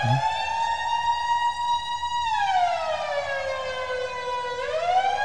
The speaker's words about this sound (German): Und jetzt denkt man, ja, das ist einfach irgendein trümmeliger Alarm, wo dann irgendwie, da kommst du an jedem Ecke.